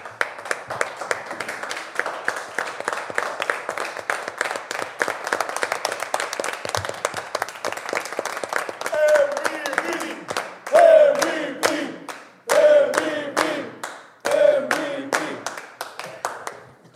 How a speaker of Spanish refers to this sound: Por favor, no, no, ahora por favor pueden pararse, vamos a tener otro aplauso gigante, creo que esto puede ser algo.